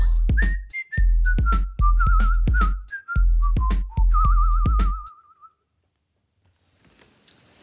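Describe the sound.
Someone whistles a lively, warbling imitation of birds twittering, with trills and sliding high notes over a steady rhythmic accompaniment, stopping after about five seconds and leaving faint quiet.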